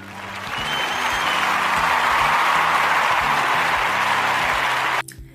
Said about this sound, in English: a round of applause for the class of 2020.